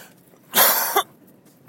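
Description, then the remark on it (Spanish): A person's habitual daily cough: a single loud cough bursts out harshly, followed by a short catch, then a brief second cough begins at the very end. No one speaks. “Lo siento, la tosesica de todos los días.”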